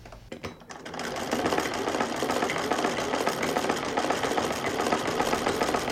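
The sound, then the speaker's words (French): A cast-iron Singer sewing machine whirs to life and runs steadily, its rapid, even mechanical clatter fairly loud and continuous for several seconds, with no voices. “Et elle est repartie avec sa machine à coudre singère en fonte dans l'avion pour, pour Alger.”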